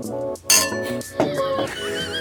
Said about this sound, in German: wir stoßen an mit einem Glas und trinken aus, aus der Dose.